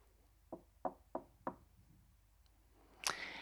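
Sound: knocking on a door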